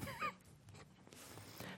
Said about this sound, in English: What are the birds worried about? I hear a bird right now. He ain't worried about nothing.